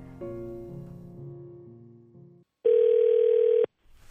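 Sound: telephone ringback tone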